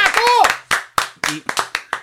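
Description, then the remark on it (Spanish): A brief voiced sound, then about seven sharp hand claps in a slightly uneven rhythm, each a crisp, moderately loud smack with short gaps between. “Eh, Yo quiero aplaudir el primer de la noche.”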